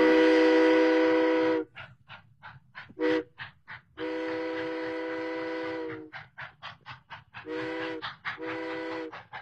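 A steam train chugs along in steady rhythmic puffs while its loud, sustained whistle blows several long blasts between the chugging. No one speaks.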